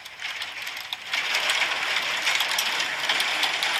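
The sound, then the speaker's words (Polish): A hail sound effect: a dense, hissy clatter of countless tiny impacts, steady and fairly loud, thickening noticeably after about a second and continuing without pause. No one speaks. “Faktycznie grat brzmi jak grat.”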